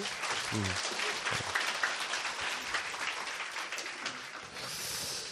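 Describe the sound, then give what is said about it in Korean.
An audience applauds philosopher Kang Shin-ju, a dense, steady crackle of many hands clapping that holds for about five seconds, with a brief voice sound near the start. “보통은 이제 우리가 자이 강신주 철학 박사에게 박수 부탁드립니다.”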